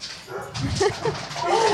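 The speaker's dogs: a dog barks a few times, then lets out a high, drawn-out whimper, moderately loud.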